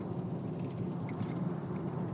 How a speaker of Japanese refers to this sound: えー、今日もですね、えー、いつものように車で通勤しながらの録音となっておりますけども